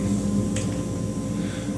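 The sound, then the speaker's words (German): A steady air-conditioning hiss in a train driver's cab, with a low droning hum underneath, continuous, even and moderately loud throughout, with a brief faint click partway through and no talking. “So, jetzt kann es natürlich sein, dass ihr hier so ein Rauschen im Hintergrund hört. Das ist die Klimaanlage.”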